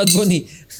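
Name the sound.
glasses clinking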